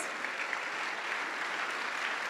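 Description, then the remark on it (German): Steady, dense applause from an audience as proof-of-concept participants are called onto the stage, a continuous wash of many hands clapping at moderate volume with no pauses, filling the whole moment without any voices. “Schönen Applaus!”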